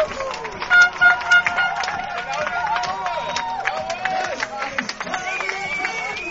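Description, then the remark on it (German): An American football stadium crowd cheers loudly and without pause after a punt return touchdown by the Franken Knights, a dense roar of many shouting voices with scattered whoops and a few horn-like toots rising above it. “Und hören Sie, was hier los ist. Die Tribüne flippt aus.”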